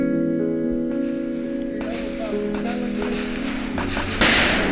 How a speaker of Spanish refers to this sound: Bueno, ahí están los golpes de Sharir ya disparando. Vamos a escuchar un poquito el sonido a fondo de lo que fue el curso de tiro que tuvimos con Sharir.